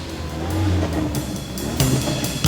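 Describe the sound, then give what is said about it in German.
A bus rumbles along a road on its way to Los Angeles in the afternoon, its low engine drone steady, with road noise and a couple of brief louder surges near the end. No one speaks. “Niemand war mit ihnen eingestiegen und kein Auto verfolgte den Bus.”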